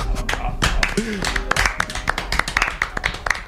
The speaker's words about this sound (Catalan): Però ha de ser un, un aplaudiment calmat perquè acabem la temporada. Relaxat.